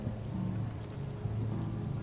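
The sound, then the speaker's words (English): Steady rain falls on a misty, rainy day over a hotel pool, hissing evenly throughout, a continuous wash of fine patter, with a low droning hum running underneath. No one speaks. “No one's in our Fairfield Inn's pool on this rainy day.”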